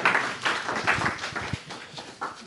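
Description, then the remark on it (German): A short burst of audience applause for the person drawing lots in a prize raffle: many scattered hand claps blend into a dense, crackling patter at moderate volume, with no one speaking over it. “Ein kleiner Applaus bitte für unsere Losfee”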